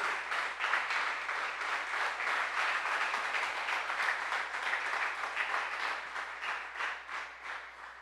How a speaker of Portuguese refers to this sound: Fique de pé no seu lugar e aplauda Jesus.